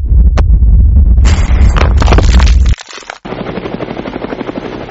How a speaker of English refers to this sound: Elizabeth's helicopter was coming in fast, faster than it should.